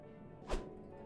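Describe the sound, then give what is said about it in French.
A fencing foil is struck from a fencer's hand in a training room in one quick, sharp whack with a dull thud beneath it, a single brief impact, with no voices and no extended clatter. “Le fleuret d'Igor s'envola, rebondit, et glissa sur la poussière du sol, jusqu'à l'entrée de la salle d'entraînement”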